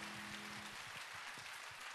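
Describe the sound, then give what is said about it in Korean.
A church audience applauds as a blessing for its small-group leaders after a prayer, with dense, steady clapping that fills the whole two seconds at an even loudness, with a faint low sustained tone underneath at the start. “다시 한번 축복의 박수 드립니다 할렐루야”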